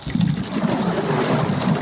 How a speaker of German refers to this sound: Als er in das Wasser plumpste, wurde ich ohnmächtig.